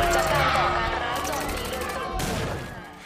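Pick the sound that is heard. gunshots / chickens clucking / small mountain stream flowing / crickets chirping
gunshots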